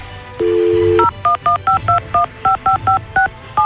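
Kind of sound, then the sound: signal or alarm, telephone number being dialed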